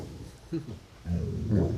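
A hunting dog growls in low, rumbling bursts: a short one first, then a longer, louder growl that swells toward the end, with no talk over it.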